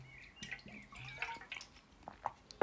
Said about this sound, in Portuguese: Ah. E agora preciso de beber água porque.